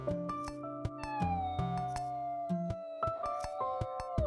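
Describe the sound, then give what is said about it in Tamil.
A cat, frightened by angry dogs, meows in long, strained, wavering cries, several drawn-out calls in a row that sound anxious and frightened, with brief sharp clicks between them and no talking. “பூனை ஆனால் பயந்து போய்”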